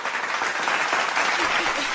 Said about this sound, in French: ça, mérite un jingle applaudissement.